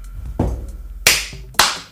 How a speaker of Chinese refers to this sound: 你拍三下手。